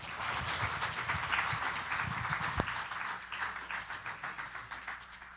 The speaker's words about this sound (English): Um, would you give him a round of applause as he comes up this morning?